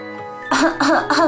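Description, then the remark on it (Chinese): Three loud, throaty coughs come in quick, even succession, each a short rasping burst with a voiced, slightly hoarse tone, after a brief quiet lead-in. “如果咳嗽了，我们该怎么办呢？”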